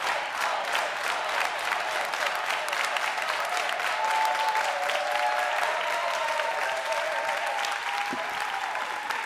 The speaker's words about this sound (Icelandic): Já, það er klappið fyrir þeim á miðan.